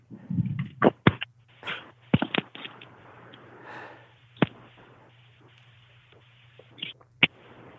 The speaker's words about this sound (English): that the clicking sounds the replugging in of your headphones made were incredibly soothing?